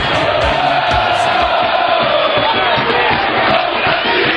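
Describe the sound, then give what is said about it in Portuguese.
A loud, dense roar of a football stadium crowd cheering and chanting continuously, with rhythmic surges and low thumping beats running underneath throughout. “Quero ouvir de novo a massa, Luciano. Bota a massa ao Celeste aí!”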